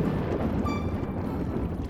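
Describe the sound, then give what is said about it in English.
A deep, rolling rumble of thunder fills the whole stretch, heavy in the low end and holding steady and loud without a break, with a faint brief tonal ring partway through. “Was that a crash? No, it's a thunderstorm.”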